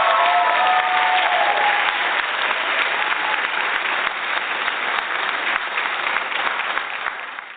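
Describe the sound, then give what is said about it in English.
A live studio audience applauds steadily for several seconds, a dense wash of clapping from many hands that holds its level, then tapers off slightly at the very end. “As you can hear our live President's Day studio audience wants more out of life and are ready with pen and paper for the tons of tips and takeaways from our five purpose driven partners over the next hour.”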